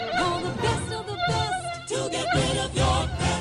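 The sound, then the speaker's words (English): A loud mosquito buzz whines steadily throughout, its pitch wavering up and down as if insects circle; no one speaks. “your yard again and protect your family from mosquitoes that can carry West Nile and encephalitis.”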